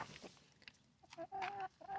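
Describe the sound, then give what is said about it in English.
Chickens clucking in a chicken coop: scattered short clucks give way to a few louder, drawn-out warbling calls near the end, with no voices. “wow, what a beautiful chicken coop.”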